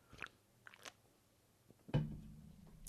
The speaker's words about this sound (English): So with all that said, I am gonna take a quick sip of my ice cold beer.